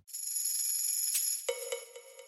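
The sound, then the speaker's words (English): A shaker and tambourine ring out in bright, shimmering metallic jingles, then a clanking cowbell hit repeats in fading echoes, all washed in spacious reverb; echo and reverb effects added to percussion layered into a groove. No one speaks. “To begin with, I've got a few pretty standard pieces, including a shaker, a tambourine, and a cowbell, but I've added on an echo effect and reverb to make them feel more spacious.”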